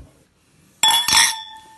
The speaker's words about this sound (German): Erstmal anstoßen. Komm.